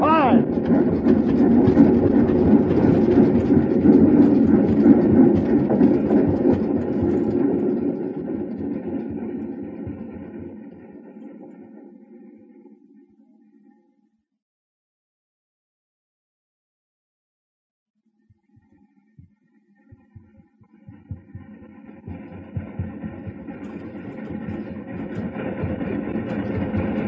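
A train engine rumbles heavily along the rails as it approaches a high bridge, loud, then fades to near silence for a few seconds before the steady clattering roar builds back up.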